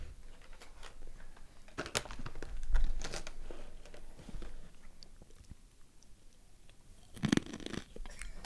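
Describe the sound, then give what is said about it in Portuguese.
Close-up crunching of a crisp snack being chewed, with irregular sharp bites and crackles right at the microphone, no talking over it. “Agora você pode pegar e mastigar bem perto do microfone, por favor.”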